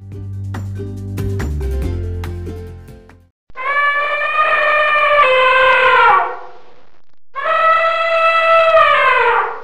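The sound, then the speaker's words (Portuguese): An elephant trumpets twice, two long, loud, brassy blasts that sag slightly in pitch, following a short stretch of low rumbling, clattering background sound. It is Tadeu, an Indian circus elephant, standing on two legs with its trunk raised high. “Ficou em pé sobre as duas patas, levantou a tromba bem no alto e gritou de felicidade.”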